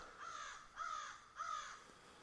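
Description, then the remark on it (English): Three harsh, rasping caws from a group of crows in tall pines in rural Ontario, in steady succession, each call drawn out with a slight downward bend, ringing right overhead against a quiet outdoor background with no talking. “the crows. They were right overhead. Oh, yeah, it's a bunch of them.”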